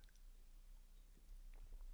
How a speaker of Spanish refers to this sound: perdón los que están en Spotify y no pueden ver, estoy con la boca seca, entonces estoy tomando aquí unos traguitos de Coca-Cola Light.